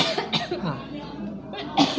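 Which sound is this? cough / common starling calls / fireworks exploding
cough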